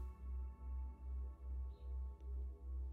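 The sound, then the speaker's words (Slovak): Low, humming relaxation tones pulse steadily in smooth swells about every half second, with a faint steady drone above them and no voices. “Takže sa postupne len započúvajte do tónu”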